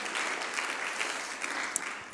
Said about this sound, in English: Oh, if we can just worship God, you can clap your hands to, the, to God right now. In Jesus' name. Hallelujah.